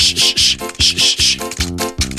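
Rhythmic, scratchy toothbrush strokes, about six quick back-and-forth scrubs in a steady beat, moderately loud over a low, steady musical tone.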